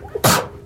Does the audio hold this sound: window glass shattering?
no